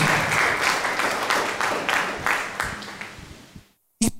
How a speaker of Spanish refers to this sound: Ok, denles un aplauso a mis tres amigos.